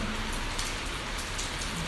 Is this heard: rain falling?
yes